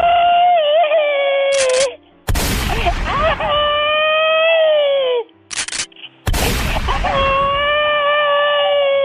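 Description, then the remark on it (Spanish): A person screams loudly, letting out three long, wavering shrieks separated by short pauses, each starting with a harsh, noisy burst. “con muchas ganas de gritar.”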